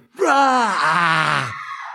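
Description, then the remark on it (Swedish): A person screams once, a loud, sustained cry lasting just over a second with a pitch that slides downward, with no talking around it. “Och någon som skriker.”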